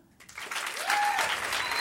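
Audience applause for the McFit Dusche question swells up after a brief quiet moment and holds steady, a dense crackle of many hands clapping with a faint whistle rising through it.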